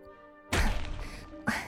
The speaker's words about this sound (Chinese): 傻子跟着奴才到他屋外，动手就砸那泥墙。